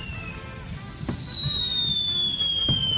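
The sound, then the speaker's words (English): Firework rockets give off a long, steady whistle, made by gas slowly released as layers of organic salt and potassium burn, that slowly drops in pitch, while two sharp explosions burst beneath it about a second and a half apart. “As each layer burns, it slowly releases a gas, creating the whistling sound associated with most firework rockets.”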